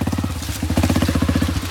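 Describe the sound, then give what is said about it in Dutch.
A motorcycle engine chugs with a steady, rapid low-pitched pulse, fairly loud, holding a rhythmic throb as the bike moves off toward a nearby German house. No voices are heard. “Op de motor vertrekken we naar een Duits huis in de buurt waar geen bewaking is.”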